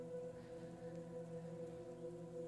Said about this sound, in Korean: 비가 오는 소리도 들어가는데 괜찮은가요? 이 비가 오는 소리는 제가 다뤄놓은 건데 distracting 거슬리는 건 아니겠죠?